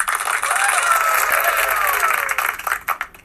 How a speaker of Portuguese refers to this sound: Mas eu quero falar o seguinte, que hoje a gente tem um quadro novo aqui. Ó, fala salva de palmas, gente.